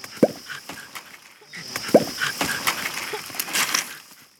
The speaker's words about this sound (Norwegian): Det her er lyden av en krokodille som åpner kjeften og dytter innpå en arm.